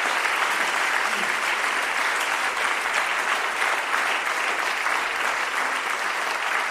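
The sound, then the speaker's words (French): An audience applauds the three speakers at the end of an evening conference on end of life, a dense wash of many hands clapping at an even loudness for several seconds, with no voices rising above it. “Je crois qu'on peut vous applaudir pour cette soirée.”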